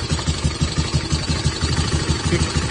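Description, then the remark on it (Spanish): A motorcycle engine idles steadily outside, its low, rapid chugging pulses continuous and fairly loud with a broad mechanical rumble and no voices. “Bueno, yo creo que se está filtrando, pero y pareciera que es una buena moto”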